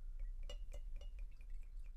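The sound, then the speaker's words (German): Gin glugs from a heavy bottle into a glass in a steady run of soft, rhythmic gulps, each with a faint glassy ring, fairly quiet, with no talking. “Jetzt habe ich die schwere Flasche eingießen.”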